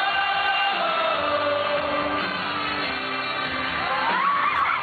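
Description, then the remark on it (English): A large concert crowd cheers and shouts continuously, with scattered whoops rising above the roar near the end, filmed on a cell phone. The sound is loud, steady and muffled, like a low-quality phone recording. “you can hear the oh, no. crowd really getting into it”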